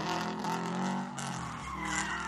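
A car engine revs hard as tires screech and skid on pavement, a loud burst of acceleration lasting a couple of seconds with a sustained squealing tone, as the driver of the car carrying Franz Ferdinand and Sophie presses the gas pedal after seeing a bomb thrown at it.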